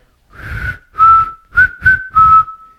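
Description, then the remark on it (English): A person whistles a short film soundtrack melody, five distinct notes in a clear rhythmic phrase, some held and some clipped, with breathy air beneath the tones and no talking. “yeah, you're a great whistler, by the way.”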